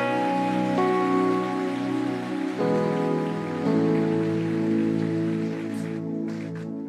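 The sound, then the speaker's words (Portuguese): A crowd claps steadily in applause to God, a dense, crackling wash that swells slightly partway through, over sustained keyboard chords that shift a few times. No one speaks. “Você pode aplaudir mais forte a Ele por isso?”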